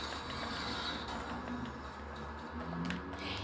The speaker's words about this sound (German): wo hier gerade ein Auto gefahren ist in Fortnite